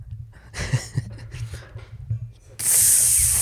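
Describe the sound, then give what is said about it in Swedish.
A few short, breathy spritzes from a bottle of Foron spray, then one long, loud, sharp hiss of spray that carries on to the end, with no talking. “Så eh, jag tycker vi säger tack till Foron, lycka till där ute och testa denna magiska spray.”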